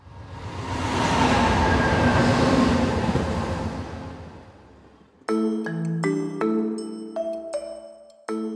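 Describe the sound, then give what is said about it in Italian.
A London Underground metro train rumbles past, swelling to a loud, roaring peak and then fading away over about five seconds, followed abruptly by a short burst of bright musical notes. “Cosa c'entra la metropolitana di Londra con una colonna traiana?”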